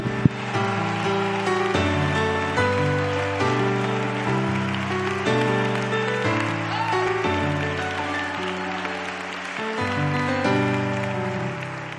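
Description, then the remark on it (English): A church audience claps and shouts to God in a dense, continuous wash of noise over sustained keyboard chords and a steady bass line, building and holding throughout. “And all the people clap your hands and shout to God right now.”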